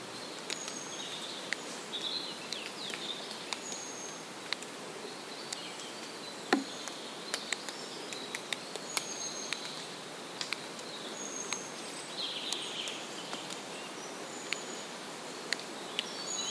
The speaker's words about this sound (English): ticking sound you can hear is created by breaking twigs.